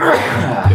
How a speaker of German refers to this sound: Gesundheit